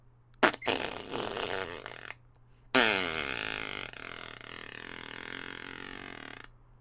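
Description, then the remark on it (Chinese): Two loud, sputtering fart sound effects for a little dinosaur pooping, a shorter burst followed by a longer, wavering one with a raspy, wobbling pitch, over a faint steady low hum and no talking. “恐龙明白，要想挽回圣诞节，只有一个办法，那就是扑哧扑哧拉便便。”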